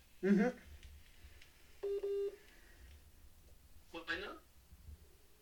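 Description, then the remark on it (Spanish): Two quick electronic telephone tones, like a number being dialed, sound in the middle of a telephone call that goes unanswered, with short bursts of voices just before and after. “No contestó este pendejo.”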